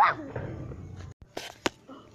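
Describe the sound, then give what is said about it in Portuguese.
A mixed-breed dog yelps with a high, rising whine, then lets out two short, sharp barks, separated by brief pauses with faint background noise. “Empina esse cachorro vira-lata.”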